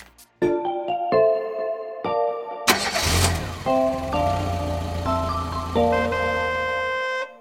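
A car engine cranks to life with a brief roar, then settles into a steady low rumble, while bright electronic musical tones play over it.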